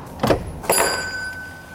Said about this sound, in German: Ah, ein Glöckchen. Ja. Ah. Die Tür geht auf.